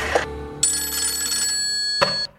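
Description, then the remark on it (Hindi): A telephone bell rings out loudly in one sustained, shrill burst, bright and metallic, framed by short sharp clicks at the start and end, as producer-director Shakti Samanta phones Dev Anand, with no one speaking. “producer director शक्ति Sawant industry के बड़े बड़े लोगों को फोन लगा रहे हैं और इसी बीच एक फोन लगता है देवानंद को”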